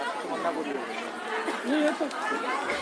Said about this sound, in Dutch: je hoort veel geroezemoes en hoe dichterbij je komt hoor je nou ja, soms gezang, want eh, er, wordt veel gezongen. Soms hoor je mensen leuzen roepen, soms hoor je denk ik een kinderstemmetje door de microfoon.